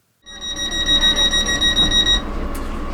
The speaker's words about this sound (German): Dieses Piepsen an die Türen mhm. mag vielleicht für andere Menschen ein bisschen nervig sein. Äh, für mich natürlich, also für uns alle, blinde, sehbehinderte Menschen, äh, eine tolle Sache, weil äh, ich einfach die Tür leicht finde.